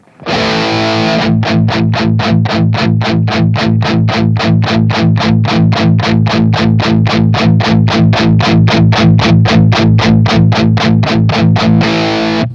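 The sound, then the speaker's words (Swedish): A loud distorted electric guitar chugs steadily on an A chord, with fast, even palm-muted strokes repeating for about eleven seconds, while a Royer microphone channel is gradually mixed in from zero. The thick, driving tone plays alone without any voices. “jag bara tuggar på ett A-ackord till exempel så kan du bara mixa in Royen lite försiktigt.”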